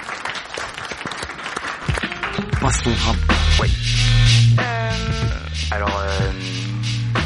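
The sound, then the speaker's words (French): An audience applauds a fellow participant in a dense, steady wash of clapping that lasts several seconds and stays fairly loud, with a few tonal voices or whoops rising briefly over it midway. “On applaudit notre camarade.”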